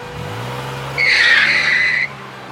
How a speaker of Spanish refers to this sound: Clarissa le dio fuerte al acelerador para colarse por un carril desocupado y avanzar terreno